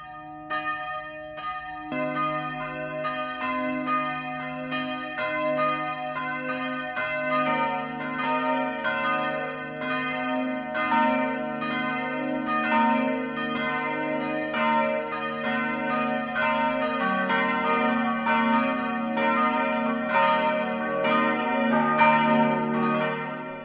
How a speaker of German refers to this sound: Es ist 12 Uhr. Das Mittagsläuten kommt heute aus Irschenberg in Oberbayern.